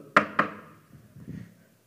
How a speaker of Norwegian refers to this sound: Jeg fant ikke noe bord. Altså, poenget med det er at du skal finne noe tre å banke i. Og ikke spør meg. Det er overtro.